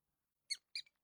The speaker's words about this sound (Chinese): 这回老小虎也听清楚了，这是老鼠在那叫呢。嘿，你们家进老鼠了，赶紧弄点药。